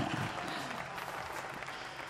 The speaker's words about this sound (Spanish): Aparte que felicitarlos porque una camada se acaba de recibir, así que vaya si no los tenemos que nombrar. ¡Aplausos! Muy bien.